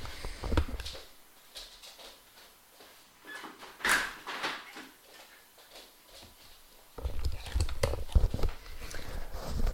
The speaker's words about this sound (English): excuse me, I'm just going to shut my doors.